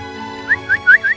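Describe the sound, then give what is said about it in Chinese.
A man sitting on grass whistles again and again for his white dog to come back: four short, rising whistle notes repeated at a steady pace, each a quick upward chirp, with no talking and only a low hum underneath. “…一次又一次地吹着口哨，并坐在草地上，希望他回来。”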